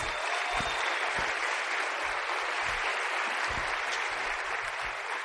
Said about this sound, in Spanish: Así que gracias y un fuerte aplauso para todos ustedes. Gracias.